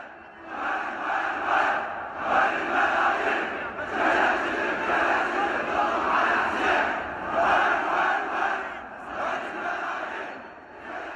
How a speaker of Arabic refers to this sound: جموع تشرين أعادت توظيف الكلمات السياسية بالردات الحسينية مثل ما كان عم يحدث عام 1880 وبعده وقت صارت الردات الحسينية تستوعب الخطاب السياسي حشود تشرين استغلت شيوع هاللون وسهولة كلماته وبساطتها ومباشرتها بالطرح بدون رتوش وتنميق